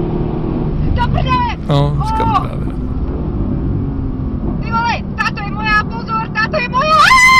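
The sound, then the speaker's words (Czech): Steady low road and engine rumble from inside a moving car runs throughout, with people talking and several high, wavering meow-like cries over it. “Jako pro lidi na podcastu je jeden tam autem, jo?”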